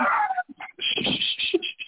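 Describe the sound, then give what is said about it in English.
Dogs yip and whimper in a quick run of short, uneven bursts, moderately loud, with brief gaps between the high whiny cries and barks. “Oh, you got... uh, uh, dogs, yes. yeah, dogs everywhere.”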